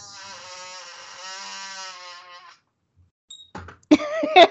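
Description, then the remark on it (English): A drawn-out creaky squeal from a squeaking computer chair lasts a couple of seconds, followed after a pause by a few shorter, harsher squeaks and creaks. “No, one day I will get a new computer chair, but it is not this day.”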